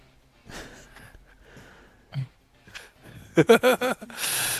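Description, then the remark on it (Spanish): A person mimics snoring with breathy, nasal snorts, then a rapid run of about five loud snorting pulses, ending in a long hissing exhale. “Eh, yo, yo, sigo roncando y, simplemente agarro la sábana”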